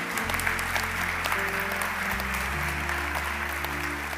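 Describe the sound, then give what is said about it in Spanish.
An audience claps for the Lord during a sermon, a steady dense wash of applause for several seconds over sustained low organ or keyboard chords that shift pitch partway through. “¿Cuánto le un aplauso al Señor a eso?”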